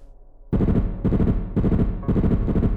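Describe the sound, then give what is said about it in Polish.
A loud burst of machine-gun fire erupts after a brief quiet moment, a dense rapid rattle as several men fire in all directions, hitting only walls and floor, continuing with slight pulsing swells until the end, with no voices. “Pruliśmy ogniem na wszystkie strony, trafiając tylko ściany i podłogę.”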